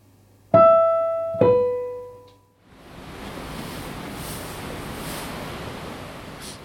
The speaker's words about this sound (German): Auf Deck 3 ist das Promenadendeck. Im äh, Hintergrund hört man ein bisschen das Meer.